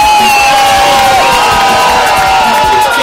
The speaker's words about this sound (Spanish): un aplauso muy fuerte de la familia Candela.